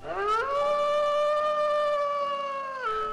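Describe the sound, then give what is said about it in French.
A wolf's howl rises quickly, holds a long steady tone for a few seconds, then drops away at the end. It's loud, with no talking. “Les animaux, petits et grands, vivaient au rythme des étoiles et de la lune sous le regard protecteur des loups. Lorsque ceux-ci se mettaient à chanter, tous se réunissaient pour écouter leurs histoires.”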